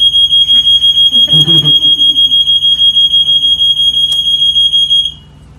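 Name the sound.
fire alarm being tested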